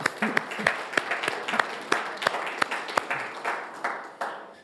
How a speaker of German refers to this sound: Wir gratulieren dir und können ruhig mal klatschen, weil das ist erlaubt.